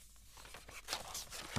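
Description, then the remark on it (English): Paper documents, geographic surveys found under a mattress, rustle and crinkle in a few quick bursts of dry, crisp handling noise, with a slight thump right at the end. “Looks like there's loads of paper documents here”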